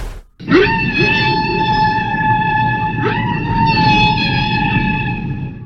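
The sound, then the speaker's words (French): Blue whale song: long, eerie tonal moans rich in harmonics, a rising call swelling into a sustained hum, then a second one following about three seconds later, loud and unaccompanied. “Entends-tu C'est le chant des baleines bleues.”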